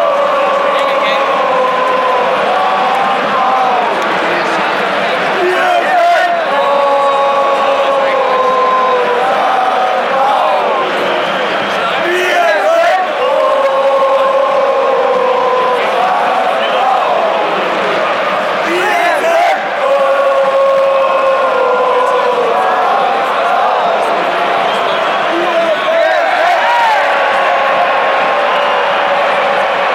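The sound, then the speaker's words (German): A huge football stadium crowd of about 20,002 spectators at the Millantor roars and chants steadily for the whole stretch, sung melodic phrases rising and repeating over a dense, loud wall of voices. “und 20.002 Zuschauer am Millantor.”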